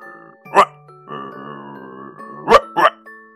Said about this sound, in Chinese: 耕完地的牛们疲惫地走进牛棚，急着要吃晚饭，狗却呲牙咧嘴地冲他们叫唤，汪汪汪汪，就像食槽里放着他们最爱吃的肉和骨头。